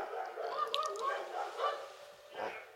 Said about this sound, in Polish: O, o psy się strasznie szczekają na zewnątrz.